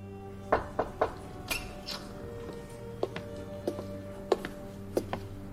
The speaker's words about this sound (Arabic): المهم طلعت على مكتبي في الكلية أكتر مكان هادي في حياتي وبدأت أطلع على الرسائل اللي وصلتني في فترة غيابي لحد ما سمعت الباب بيخبط